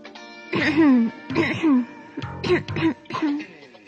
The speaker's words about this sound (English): she coughed two or three times in order to put the little prince in the wrong.